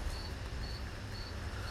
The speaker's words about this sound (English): Um, and to that, I hear my crickets listening.